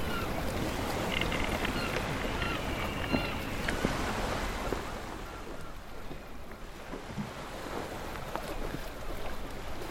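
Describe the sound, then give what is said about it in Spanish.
A ship sailing on the open sea: a steady, loud rush of waves and wind with splashing water and occasional sharp creaks or knocks, no voices. “Un barco navegando en alta mar es una buena forma de entender la autonomía.”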